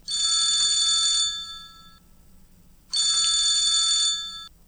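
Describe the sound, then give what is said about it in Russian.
A telephone rings twice as an outgoing call is placed, each burst a bright, trilling electronic tone lasting over a second, separated by a pause of quiet. No one speaks. “А, но тем не менее, все-таки хотелось бы услышать его небольшую историю, поэтому сейчас попробуем ему позвонить.”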